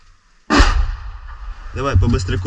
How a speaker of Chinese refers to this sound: 朝着民宅室内开枪，乌克兰国土防卫队混编陆战三十五旅的官兵小心翼翼往村庄里面移动，零星的枪声让人再度绷紧神经，直觉告诉他们村里还有残存的俄军。